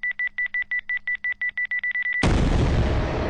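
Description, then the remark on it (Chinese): A rapid run of about a dozen high electronic timer beeps ticks steadily, then cuts off into a sudden, loud blast as a series of explosions from explosives set on every floor goes off, roaring on with heavy rumbling noise. “接连的爆炸声响起，突然之间开始地动山摇。”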